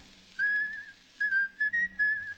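A man whistles an old song tune alone, a clear sustained tone gliding through several phrases with short pauses between notes, moderately loud.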